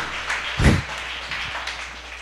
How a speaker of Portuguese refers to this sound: Aplaude a Jesus aí, irmão.